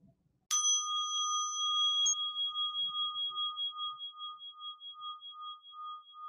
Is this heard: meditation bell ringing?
yes